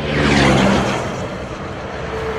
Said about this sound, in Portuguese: vendo assim, de dentro de um carro pequeno, parece que não é tanto, mas estas irregularidades no pavimento são muito incômodas para os caminhoneiros. Do alto da cabine, os impactos são mais fortes.